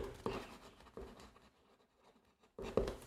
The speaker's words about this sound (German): Was schreibst du gerade auf? Du jetzt, äh, ja, genau, weil ich muss dich gleich was fragen. Das habe ich mir gerade notiert.